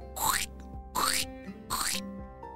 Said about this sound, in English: all of a sudden the sound of squishing wet mud under his feet started to echo.